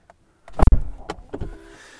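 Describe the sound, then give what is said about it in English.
Someone gets into their car in Silicon Valley, setting off on a drive up to Lake Tahoe for a ski trip: a heavy door thump, a few sharp clicks and rustles, then a low motor hum fades in. Fairly loud, with no talking. “All right, I just got in my car.”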